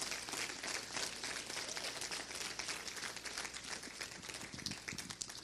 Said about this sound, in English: Come on, give Jesus a round of applause. That's a good place.